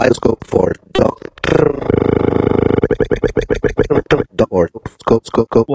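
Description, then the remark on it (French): A performer's just-recorded voice chopped and reshaped by granular synthesis on an instrument with two keyboards facing each other: stuttering vocal fragments, a sustained buzzy drone stretched out of the voice, then a rapid, choppy stream of short grunting grains. “c'est ça la synthèse granulaire tu, tu pars d'un sample et puis après tu, le, joues avec comme tu veux”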